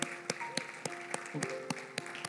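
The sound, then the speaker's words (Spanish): An audience claps together in a steady, even beat as people come forward to pray, about eight sharp claps over a couple of seconds, with sustained musical tones humming softly underneath. “Mientras siguen pasando, siga aplaudiendo.”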